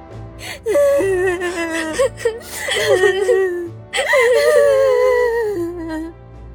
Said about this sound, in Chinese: 人群中几个女生的哭声更大了。